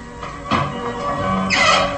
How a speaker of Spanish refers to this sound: De pronto, la puerta de entrada al estudio se abre intempestivamente y...